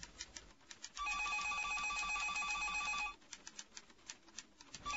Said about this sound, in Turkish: Ay ne kadar da çok telefon çaldı bugün.